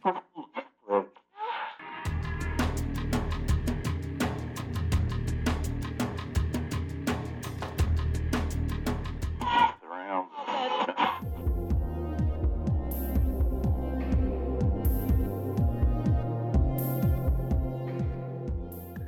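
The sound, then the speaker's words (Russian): A radio being tuned across underground trip-hop and ambient stations: brief bursts of mellow, beat-driven electronic music cut abruptly into one another, with a short static-like gap before a softer, spacious track takes over. “Минуя пару андеграундных станций с трип-хопом и эмбиентом, я слышу знакомую мелодию.”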